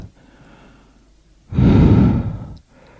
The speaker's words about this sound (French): Il se lève, prend son souffle.